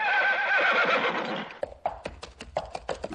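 A horse lets out a loud, quavering whinny lasting about a second and a half, followed by a quick run of sharp hoof clops on a hard surface.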